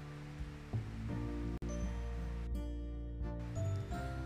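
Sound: rain falling outside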